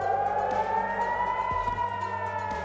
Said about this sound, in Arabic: ولأنه الاحتلال ما أعطى أي اهتمام للتحذير على الساعة 6 المقاومة ضربت صواريخ وصلت القدس وسمعنا صفارات الإنذار والانفجارات بوسط المدينة